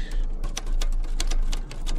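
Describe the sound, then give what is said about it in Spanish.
Farmer Brown types on his own typewriter. It clacks away in quick, uneven bursts, roughly a dozen sharp key strikes in two seconds, fairly loud with no voices. “El granjero Brown sacó su propia máquina de escribir.”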